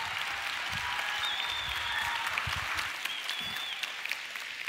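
An audience applauds steadily, a dense wash of many hands clapping at an even level for several seconds, with a few faint whistles or cheers rising above it and no speech.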